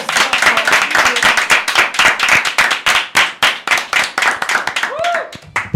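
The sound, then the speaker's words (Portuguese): Loud, rapid hand clapping from a few people, the claps overlapping in an uneven rhythm for several seconds, with a brief rising vocal whoop near the end. “Valeu, acho que vamos encerrar com palmas, né?”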